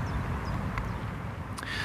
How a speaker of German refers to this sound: Ganz schick hier, ein bisschen abgeschirmt. Man hört zwar hinten die Straße, aber vor allem hört man die Vögel. Und äh, ja, es ist relativ ruhig hier.